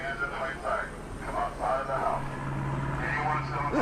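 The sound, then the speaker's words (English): A helicopter drones overhead during a police response to people arrested for breaking COVID rules, a steady, rumbling hum with a low engine tone, fairly loud and continuous, while muffled voices talk underneath. “Helicopter flying overhead.”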